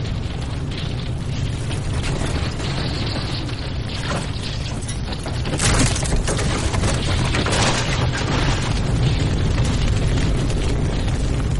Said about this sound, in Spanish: De noche el barco arde en el mar.